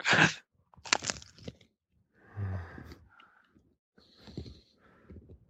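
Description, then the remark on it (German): Someone chews a burger with crunchy, crackling bites: a few sharp, loud bursts early on, then softer, uneven crunches and mouth noises trailing off, with no talking. “Das hört sich an wie meine Aufbackbrötchen.”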